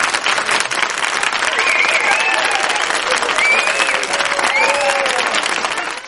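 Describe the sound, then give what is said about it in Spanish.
An applause sound effect: steady, dense applause from a crowd fills the whole clip at an even loudness, with a few faint whistles or cheers rising above the clapping before it tapers off slightly at the end. “A ver si, a ver si el aplauso lo tengo. El aplauso lo tengo.”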